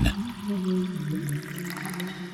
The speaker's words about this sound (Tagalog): Sinasalinan niya ng tubig ang banga ni na Eileen.